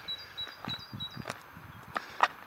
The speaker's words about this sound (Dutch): Dus je hoort de vogels.